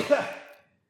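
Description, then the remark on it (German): A single short sneeze: one sharp, breathy burst that quickly fades away within about half a second, with no talking around it. “Oh, entschuldige Jawohl, bitte. Jawohl, Gesundheit.”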